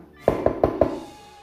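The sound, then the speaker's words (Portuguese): Four quick, evenly spaced knocks on a wooden door, fairly loud, followed by a brief fading resonance and quiet. “A Xuxa bateu na porta”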